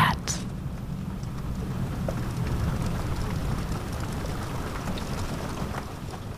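A low, steady rumble of far-off thunder from an approaching thunderstorm rolls beneath a constant patter of rain, with a brief brighter crackle at the very start and no break in the storm's wash of sound.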